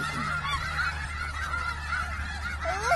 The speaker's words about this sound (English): at all those chickens.